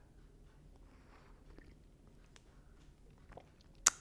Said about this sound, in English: I'm take a sip of coffee because it's morning and I'm, you know, gonna just do that.